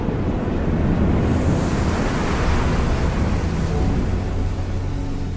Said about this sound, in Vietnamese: Có một ngọn gió thổi mạnh xé cả núi